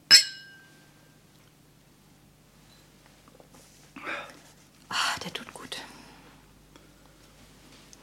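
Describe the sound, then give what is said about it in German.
A single bright clink of two drinking glasses right at the start, its ring fading over a second, followed by quiet stretches and soft whispered voices. “Zwei Gläser habe ich. Eins ist für dich.”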